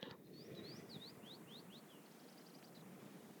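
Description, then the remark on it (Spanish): A bird sings a quick series of chirps and sweeping whistles, followed by a rapid trill, heard faintly over a steady outdoor background hiss outside a house in a valley, with no one talking. “Oigan, estoy aquí como un poquito afuera en mi casa de valle y veo que se escuchan los pájaros.”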